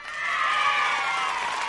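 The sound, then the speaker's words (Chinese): An audience at a performance cheers and claps together in a loud, steady roar of mingled voices and applause, holding at an even level without a break and with no single voice standing out. “观众们激动的大叫，全场一片欢腾。”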